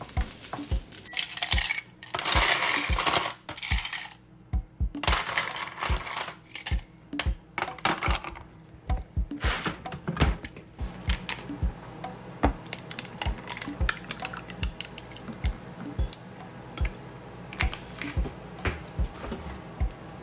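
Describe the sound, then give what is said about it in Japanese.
Metal utensils scrape and clink against a frying pan and plate as fried rice is scooped from the pan onto the plate, a busy run of sharp clatters with bursts of rustling scooping noise, fairly loud, no voices. “お皿に移して完成でございます”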